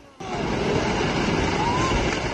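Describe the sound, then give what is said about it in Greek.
A loud, steady roar of a rushing river torrent from melting ice in Alaska bursts in after a brief quiet moment, a dense, powerful churning flow that continues without letup as it sweeps a house away. “Οι σαρωτικοί χήμαροι που δημιουργούνται παρασύρουν το σπίτι.”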